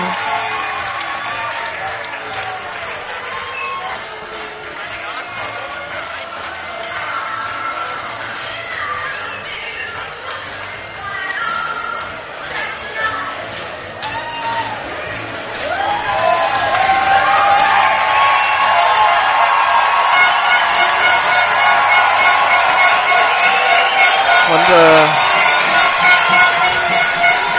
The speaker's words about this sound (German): Am Zuschauerjubel hinter mir hören Sie, wie voll es hier ist. Also die Sitzplatztribüne komplett belegt. Der überdachte Teil, der unüberdachte Teil auch sehr gut gefüllt.